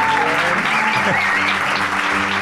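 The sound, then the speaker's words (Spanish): The audience of La Escóbula de la Brújula claps steadily in dense, continuous applause, loud and even throughout, with a faint murmur of voices mixed underneath. “No, no, pero no he dicho que dejéis de aplaudir.”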